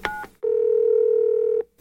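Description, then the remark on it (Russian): A phone number is dialed to call musician Alexander Kutikov of a band: a brief two-tone keypad beep, then a long, steady, low-pitched telephone tone lasting over a second, ending with another short burst. No one speaks. “Сегодня мы с вами позвоним известному музыканту, заслуженному артисту России, участнику группы … Александру Кутикову.”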